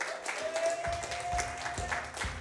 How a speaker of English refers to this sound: Hey, I want y'all to give a hand clap for my really good friend